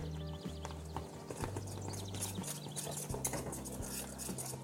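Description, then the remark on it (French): Rapid, steady clicking of a whisk beating a very hot, bubbling mixture in a bowl, fairly loud, with a low humming tone running underneath throughout. “Et maintenant, on va fouetter. En fouettant, ça va raviver un petit peu les bulles.”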